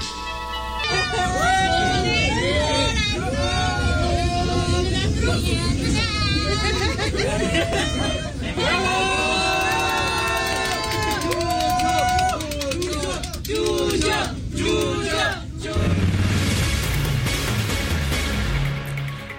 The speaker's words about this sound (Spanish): Y sin dudarlo, el niño se pone de pie en su asiento y comienza a cantar, por lo que recibe una gran ovación.